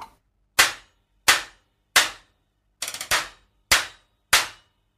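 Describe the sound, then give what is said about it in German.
A stack of three cymbals, 12-inch at the bottom, 14-inch in the middle and 16-inch on top, struck about six times at a steady pace, each hit a bright, trashy burst that chokes off quickly. One strike is a rapid flurry of several strokes. No talking. “Ich mache jetzt mal das 12er nach unten, das 14er in die Mitte und das 16er oben drüber. Wie klingt das?”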